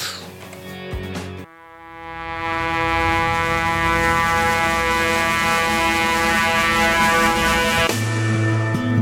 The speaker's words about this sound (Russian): Так вот, э, вступление, нарастающий звук некого духового инструмента заимствовано из одного фильма в жанре каком?